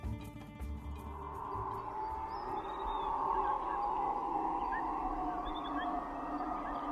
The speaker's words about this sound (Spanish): Hay un momento en el alba en el que todos los sonidos de la selva se sincronizan celebrando la salida del sol. Insectos, monos y aves se unen en una sinfonía que hace las veces de despertador